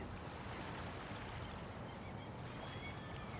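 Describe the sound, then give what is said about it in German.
Ocean waves wash steadily against the shore, a continuous rushing surf with a low rumble underneath and no distinct pauses. The sound is moderately quiet, and no one speaks. “Wir genießen den Moment, trinken unseren Champagner und beobachten die brechenden Wellen.”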